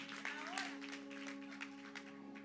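An audience applauds with a soft, steady patter of many hands clapping for a couple of seconds, fairly faint, over a constant low hum.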